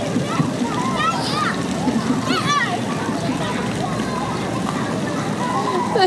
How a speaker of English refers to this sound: Her and a new friend she made on the playground are chasing her dad around with a water gun. He's going so slow, but they're trying so hard and look so goofy.